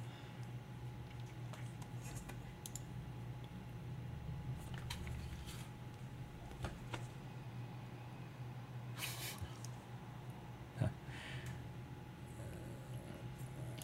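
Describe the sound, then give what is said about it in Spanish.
A steady, low synthetic drive sound from a Porsche Taycan electric sports car, an optional sound added through the configurator, hums continuously with a faint airy hiss, broken by a few soft clicks and one sharp tap near the end, with no one talking. “ese es el sonido que va a hacer el carro. ¿Vale? Que supuestamente es el ADN de un Porsche.”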